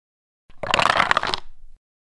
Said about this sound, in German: wunderschönes Geräusch beim Würfeln. Diese Würfel stellen die, die Beute der Vögel dar.